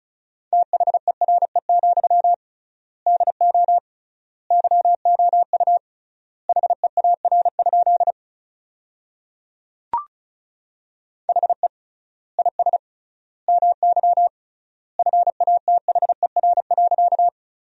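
Rapid Morse code beeps at about 35 words per minute sending sentences made from the 300 most common words, a steady single-pitch tone keyed in quick bursts of dots and dashes with triple-length gaps between words, and a brief click partway through.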